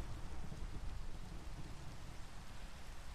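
Steady, dense rain hisses without a break while a deep, low rumble of thunder rolls underneath throughout. No one speaks.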